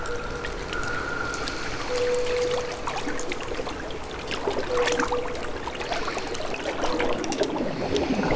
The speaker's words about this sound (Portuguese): Se curva, aproxima o rosto da água e emerge o braço delicadamente.